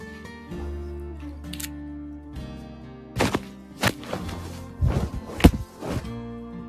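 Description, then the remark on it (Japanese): A large bedsheet flaps and snaps several times in irregular bursts while laundry is being folded, sharp whooshing rustles over a steady low background hum, with no talking. “すみません、バタバタしちゃってる洗濯物が。ちょっとス、シーツシーツがでかくて。”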